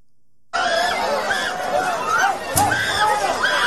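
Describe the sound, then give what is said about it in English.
A dense crowd of many voices shouting and yelling over one another, loud and continuous, with a sharp bang partway through, as people hop over walls and borders on an island in Italy. “It sounds like a bunch of screaming, so I'll read.”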